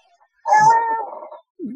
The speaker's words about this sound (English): Our cat wants to, to join the, the chat. A lot to say.